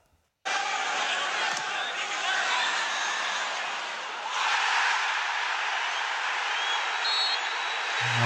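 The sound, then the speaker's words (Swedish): A massive football stadium crowd roars steadily for several seconds as a player is brought down, dips briefly, then surges into a second loud roar when the referee blows and makes the call, with a faint, short whistle-like tone near the end. “Det andra vrålet, det är ju när domaren har blåst och bestämt sig.”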